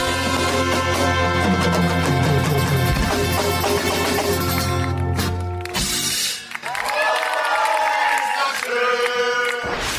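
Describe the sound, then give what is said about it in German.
An audience, asked to stand up and clap their hands, claps and cheers loudly and steadily for about ten seconds, with a dense wash of applause, shouting voices and some tonal sounds mixed in, briefly dipping near the middle. “Da bitte ich jetzt ganz wirklich Herrn noch einmal aufzustehen und in die Hände zu klatschen.”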